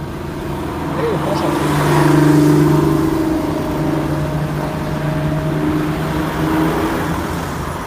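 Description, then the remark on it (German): A car drives through a city on a hot day with its windows down, filling the cabin with a steady engine drone and rushing wind and road noise that swells slightly, then holds constant throughout. “Weil wir müssen mit offenen Fenstern fahren.”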